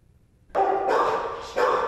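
Several dogs at the Mohawk Hudson Humane Society animal shelter near Albany, New York, which has run out of dog kennels, bark loudly and continuously in a reverberant space, their overlapping yips and barks forming a dense, echoing chorus.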